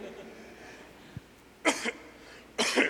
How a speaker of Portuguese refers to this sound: Desculpa a tosse aí.